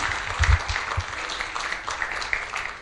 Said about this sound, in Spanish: Gloria al Señor, hermanos. Démosle un aplauso a Cristo Jesús. Aleluya.